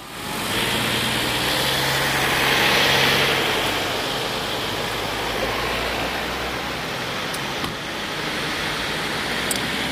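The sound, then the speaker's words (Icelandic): A car engine rumbles as a vehicle comes through an intersection and turns past the people recording, its broad road noise swelling briefly and then settling back into a steady traffic wash. Nobody speaks. “við þurfum allir að keira um þessi gatna mót og kveika bílónu sínum að því að við erum að taka upp það er samt mjög flott þarna hvernig hann kemur, hérna, hvernig hann kemur og beigir fram hjá okkur”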